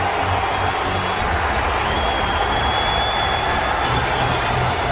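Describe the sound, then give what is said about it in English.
Sustained, loud applause and cheering from a sparse football stadium crowd as Tua Tagovailoa takes the field for the first time, with Fitz leading the ovation during a 24-0 blowout of the New York Jets. A dense wash of clapping and roaring holds steady throughout, with a faint high whistle drifting over it. “There's hardly anyone in this building, but it's still loud.”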